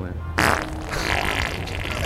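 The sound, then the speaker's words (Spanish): A loud, sputtering fart bursts out abruptly and trails off into a rough, sustained rasp lasting over a second, fairly prominent with no speech. “¿Cómo reacciona la gente al pedo?”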